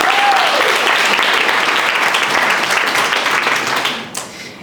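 A crowd applauds loudly for a programme participant, a dense, steady patter of many hands clapping for about four seconds before it quickly fades away. A brief vocal whoop rises at the start.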